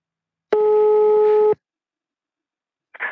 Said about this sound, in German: Da klingelt schon.